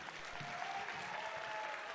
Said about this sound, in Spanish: Aplauda fuerte al Señor, vamos.